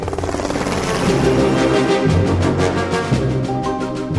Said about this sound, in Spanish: Desesperada, la base conjunta de Charleston, lugar del que despegó el F-35 Zombie, cree que el caza ha podido ir hacia el sur, hacia los lagos Moultrie y Marion, y allí envía sus helicópteros de rescate.